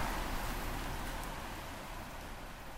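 Steady rain falls in Riga, Latvia, heard from indoors in a hotel room as a continuous, even hiss with a soft low rumble beneath it, moderately loud and unchanging throughout, with no voices.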